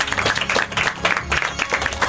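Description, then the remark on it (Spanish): An audience applauds steadily for a classmate who read a manifesto, a dense wash of many hands clapping at a fairly loud level for a couple of seconds with no voices. “Yo creo que se merece un aplauso a la compañera por ese manifiesto.”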